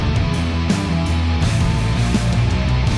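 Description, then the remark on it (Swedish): A loud, distorted rock guitar riff plays with dense harmonic chords and a driving rhythm, full band energy filling the whole clip without any voices. “Lyssna på riffet.”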